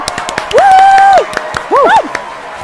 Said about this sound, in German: Also Erstmal also Applaus mal. bitte einspielen.